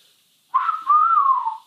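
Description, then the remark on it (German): A person tries to whistle, producing a single breathy, airy tone that wavers and slides in pitch for about a second, with no talking over it. “siehst du, ich kann nicht pfeifen.”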